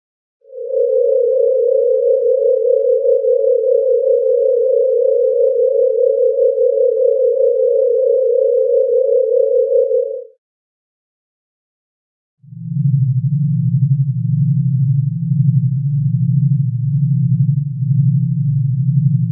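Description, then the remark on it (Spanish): Eerie sonified tones of star vibrations from a NASA video: a steady, pure mid-pitched drone holds for about ten seconds, falls silent briefly, then a deeper, slightly throbbing hum takes over, loud, with no voices. “el sonido de dichas estrellas podemos escucharlo en el video subido a Twitter oficial de la NASA, pero aquí les dejamos un fragmento”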